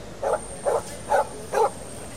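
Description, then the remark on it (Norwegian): A dog gives four evenly spaced, deep honking barks with a brassy, tuba-like tone, each short and fairly loud over a faint steady hiss. “Har de festa tubaen til en hund? Eller har de festa en hund til en tuba?”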